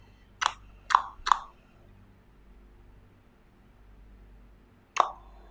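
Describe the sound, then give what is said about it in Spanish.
Sharp tongue clicks: three quick pops in a row, a pause of several seconds, then one more, each a crisp hollow knock over a faint low hum. “Con la lengua. como que recuerdan algo que los perseguía cuando estaban del otro lado.”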